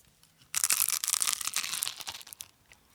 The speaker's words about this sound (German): Dann hätte ich ein nepoletanisches Gebäck, musst du mal hören.